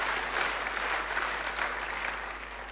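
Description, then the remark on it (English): An audience applauds for mums with empty arms, with steady, dense clapping that holds at an even level for a few seconds before easing slightly at the end. “Just give them a big clap.”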